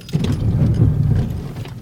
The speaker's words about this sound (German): Also, man hat es gut ge äh, gehört, glaube ich. Das ABS hat gegriffen, das Auto hat ordentlich gerüttelt.